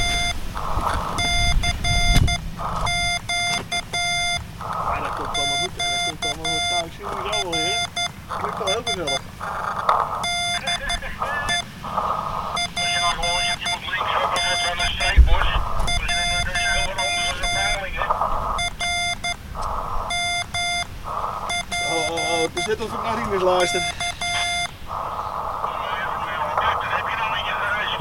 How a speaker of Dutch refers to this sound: zend steeds een CQ nu uit. In de hoop dat mensen mij horen. ik zend CQ, CQ. En dan de QRS. Dat betekent van alsjeblieft een beetje langzaam terugkomen. En eh, daarna dan eh, mijn call zijn erachteraan.